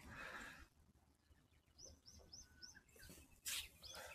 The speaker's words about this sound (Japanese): ひばりだよね、これ、チュンチュンしてるの。きっと。